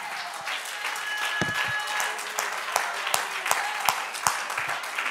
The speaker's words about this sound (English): Let's clap our hands unto the Lord and magnify.